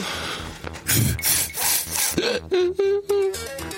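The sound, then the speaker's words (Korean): A voice imitates a chair collapsing: a run of creaking, rasping wood-like strains, then a few short rising and falling groans with a steady tone, loud and with no speech. “그는 의자가 내려앉는 소리부터”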